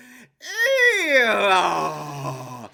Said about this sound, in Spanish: En la introducción a este programa se escuchaba el rechinar de una puerta de bóveda que se abría en medio de un eco